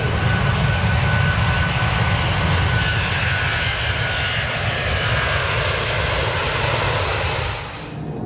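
Propeller airplane engines of a Mexicana de Aviación aircraft start up, propellers spinning, and roar loudly and steadily on a grey morning in Mexico City, a dense rumbling drone with a faint high whine, dipping slightly just before the end. No voices are heard.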